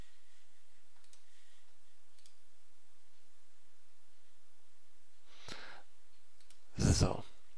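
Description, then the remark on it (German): A couple of sharp computer mouse clicks, made while clicking on a wood texture in a tutorial, land near the end, the second one louder, after several seconds of near-silence with only a faint background hiss. “Okay, wir drücken einfach oder klicken einfach mal hier rein auf die Holzstruktur.”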